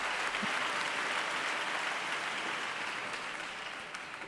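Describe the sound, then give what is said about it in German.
A large audience claps enthusiastically, a dense, steady wash of applause that stays loud and continuous throughout, with no voices standing out. “eine Sängerin ihm dann gezeigt hat, dass er sich umdrehen sollte, da merkte er, dass alle ganz begeistert klatschten und verbeugte sich viele, viele Male.”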